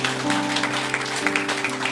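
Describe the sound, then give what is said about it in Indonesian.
A crowd claps steadily throughout, a dense, crackling wash of many hands, with sustained musical tones humming underneath, applauding in praise of Jesus. “Haleluya, beri tepuk tangan bagi Tuhan Yesus.”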